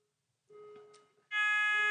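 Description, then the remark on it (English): A building fire alarm starts with a steady electronic tone, then jumps to a loud, harsh, continuous blare. No one speaks. “that's the fire alarm going off.”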